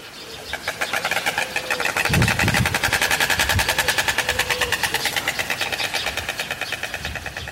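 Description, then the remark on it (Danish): Storks clattering their bills at a stork nest on a farm, a fast, steady rattle of sharp wooden knocks, loud, sustained for several seconds with a brief lower murmur partway through. “Ja, og det er, hvis du ikke lige kender lyden, storke, der knævrer.”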